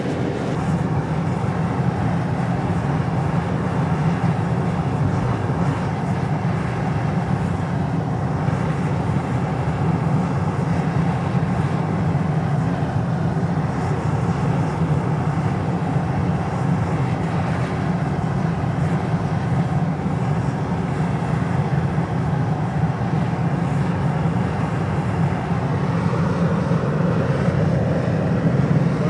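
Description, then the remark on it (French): A volcanic fumarole at the summit of the Soufrière vents steam in a continuous, powerful roar with a rushing hiss, loud, holding steady without pause, with a very strong wind at the summit. No voices are heard. “Et ça souffle, ça, crache de la vapeur avec une odeur de soufre assez terrifiante”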